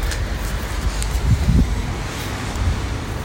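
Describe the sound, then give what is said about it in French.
Ocean waves wash onto the shore in a steady, rumbling roar, with a slightly stronger surge midway, mixed with gusty wind noise buffeting the microphone; no one speaks. “Je continue à monter mon prolongateur avec les bruits des vagues.”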